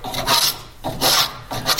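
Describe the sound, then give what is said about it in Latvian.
A hand tool shaves wood in three steady, rasping strokes, fairly loud, with short pauses between them and no voices, as a carpenter in a workshop shapes by hand the curved, rounded part of a wooden staircase, taking off wood shavings. “Teicāt, noņemšu skaidu vai kā tur bija? Jā, tā skaitās skaidrs noņemšana.”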